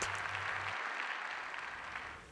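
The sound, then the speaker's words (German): Sustained applause in parliament for Wolfgang Schäuble, a dense, even wash of many hands clapping at steady loudness that eases off slightly toward the end, with no voices heard. “Großer Beifall für Wolfgang Schäuble.”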